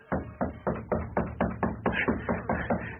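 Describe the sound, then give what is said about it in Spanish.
Knocking at a door: a steady run of about eleven evenly spaced, moderately loud dull raps over three seconds, with no voices. “En aquel instante llamaban a la puerta.”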